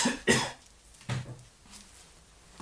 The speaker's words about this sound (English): sorry for all the coughing. It's just that I'm breathing fiberglass particles.